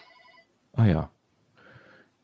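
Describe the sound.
A faint electronic mobile ringtone trills in short pulsing tones, is cut off by a brief spoken interjection, then sounds again softly for about half a second.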